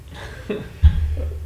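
A quick breathy lead-in, then one abrupt, forceful sneeze that leaves a low, muffled rumble trailing off for a moment afterward. No one speaks.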